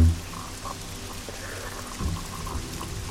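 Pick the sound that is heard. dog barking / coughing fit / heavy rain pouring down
heavy rain pouring down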